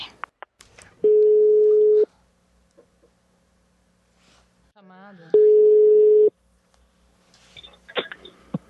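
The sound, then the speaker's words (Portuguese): Two long, steady electronic ringback tones, each about a second, separated by a pause with faint clicks, heard while an outgoing phone call to Talíria waits to be answered. “Então agora a gente vai ligar para a Talíria para perguntar sobre esse tweet e saber se as coisas são melhores em Brasília do que na Câmara de Vereadores de Niterói.”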